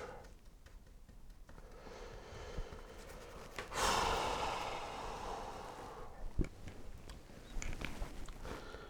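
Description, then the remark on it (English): Someone blows their nose, one forceful, noisy burst of air that trails off, with softer sniffs and breathing before and after. No one speaks. “Me complaining and blowing my nose.”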